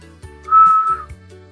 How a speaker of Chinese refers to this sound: 哦，阿奇，睡觉的时间你怎么在吹口哨？ 哦，小趣，我睡不着，所以只能练习吹口哨。